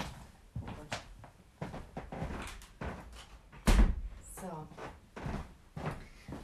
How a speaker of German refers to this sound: Ähm, heb mal bitte ganz kurz, wir müssen noch kurz die Türe schließen,